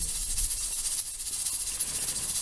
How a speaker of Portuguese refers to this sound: Só que quando abri a porta, comecei a escutar aquele chiado bem alto da panela no fogo.